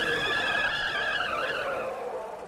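A loud, sustained tire screech from a Honda race car driven by Bucknum as it spins off the track at the Karussell curve of the Nürburgring and onto a grassy bank. Its high squealing tones waver and slowly drop in pitch over a couple of seconds, with no voices present.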